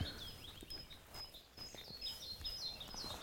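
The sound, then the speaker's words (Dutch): Soft, high-pitched chirps from a male pied flycatcher, singing in a tree by its nest box, repeat irregularly over a thin, steady insect-like whine, with no voices present. “Mannetje bontvliegvanger.”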